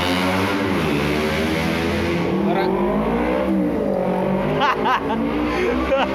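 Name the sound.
car engine revving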